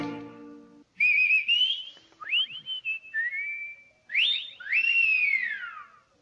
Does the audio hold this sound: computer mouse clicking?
no